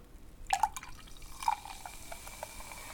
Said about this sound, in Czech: Já po dlouhé době, možná poprvé v tomto podcastu nalévám moji Coca-Colu Zero do sklenky.